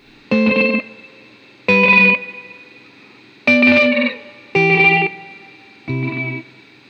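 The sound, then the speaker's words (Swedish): Five sustained, distorted chords from a tape delay pedal using its Swell function with the tape heads not activated, giving a single repeat; each chord swells in and fades with that one repeat, giving an almost backwards feel. Evenly spaced, with no talking. “Och när man drar igång Swell så aktiverar man alla fyra tonhuvuden.”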